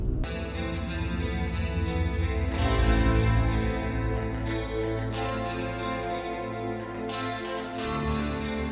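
A heavy metal song plays from a recording, loud and dense, with sustained chords and crashing cymbal hits every couple of seconds; no voices talk over it.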